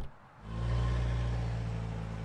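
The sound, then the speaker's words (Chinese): A car engine starts up and pulls away, a low steady rumble swelling after a brief quiet moment and holding a strong hum as it drives off. “这天，念小北换上一身黑色的长裙，坐上了车。”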